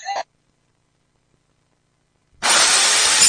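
A short burst of noise, a couple of seconds of silence, then loud, harsh renovation sawing kicks in abruptly and grinds on steadily, dense, until the end.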